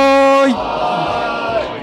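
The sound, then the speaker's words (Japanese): One voice calls out, and then a group of people holding drinks shout a toast (kanpai) together at an anniversary celebration, in a loud, brief burst of overlapping cheering that fades after about a second. “では、島田のマイク3周年、そして150回を記念しまして、乾杯乾杯”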